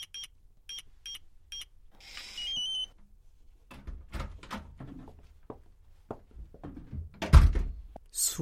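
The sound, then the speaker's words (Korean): A glass living room door of a house opening: three quick electronic beeps and a brief whir, then a string of clunks and rattles ending in one heavy thunk. “거실 유리문을 열자마자 감탄이 저절로 터져 나왔다.”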